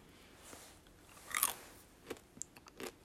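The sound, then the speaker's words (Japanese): Crisp crunching as a hard, grape-flavored snack is bitten and chewed, one sharp loud crunch followed by several quieter, brittle crackling bites at an uneven pace, with no talking. “なんか、この、何でしょうか、あの、爽やかな、このグレープ味のフルーティーな甘さと、このカリポリとあの何て言うんですか音を立ててくれるこの”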